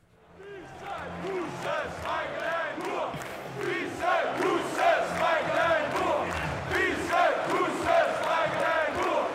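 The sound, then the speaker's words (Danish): A large concert audience stands and chants a song together in Danish, singing 'Fisse, Kusse, Smeichel er en mur', many voices in unison with a steady rhythmic pulse and sustained loudness throughout, rough and shouty. “fordi alle publikummerne står og synger Fisse, Kusse, Smeichel er en mur.”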